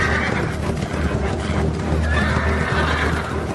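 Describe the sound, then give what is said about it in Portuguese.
Horses whinny and neigh over a steady clatter of hooves, a dense, continuous mix with no voices, the calls rising in bursts above the rhythmic clip-clop. “Depois disso, Absalão mandou preparar para si um carro com cavalos e cinquenta homens para correrem na sua frente.”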